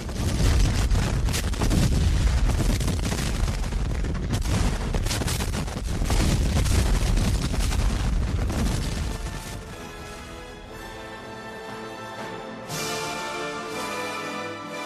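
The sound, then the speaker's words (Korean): A dense, loud barrage of cannon and artillery fire, booms overlapping in rapid succession for about ten seconds, then easing off as music rises in its place. Union and Confederate armies firing cannons at each other's lines after General Ulysses Grant ordered an attack on all of Robert Lee's lines. “북부군과 남부군 모두 상대편 전선을 향해 무섭게 대포를 쏘아댔습니다.”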